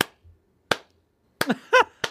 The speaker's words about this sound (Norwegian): Han, han er sånn James Bond-skurk. Han driver og klapper.